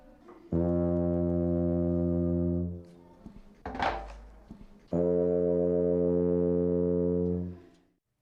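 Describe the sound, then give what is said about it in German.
A tuba holds a low, steady note for about two seconds, a brief clunk follows, then the same long note sounds again with a large cone-shaped wooden mute plugged into the bell, each note fading out at the end. “Ich spiele jetzt einfach einen langen Ton und dann spielen wir den gleichen Ton wieder mit dem Dämpfer drin, damit man hören kann, wie sich der Klang ändert.”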